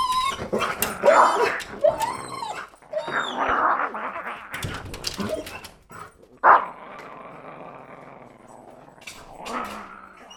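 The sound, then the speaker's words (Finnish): A frightened grey Australian Cattle Dog, sitting on the floor and staring at a massive oak door, whines and whimpers in high, wavering cries, with some low growly sounds and shuffling between them, fairly loud, followed by a quieter stretch of low rumbling noise. “Se istuu lattialla, vinkuu ja tuijottaa massiivista tammiovea.”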